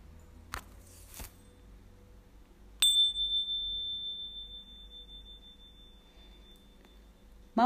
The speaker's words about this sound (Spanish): Cuando suene de nuevo la campana, entonces podés hablar otra vez, pero en voz baja. Escucha atenta.